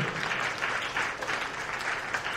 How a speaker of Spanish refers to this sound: Y eso merece un amén y eso merece un aplauso. Aleluya.